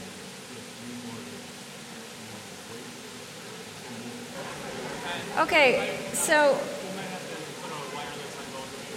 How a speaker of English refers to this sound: all right, so we think the, this loud rain is going to pass in 10 or 15 minutes. We don't know that.